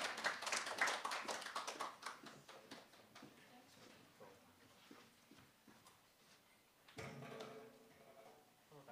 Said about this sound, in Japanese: はい、拍手で迎えましょう。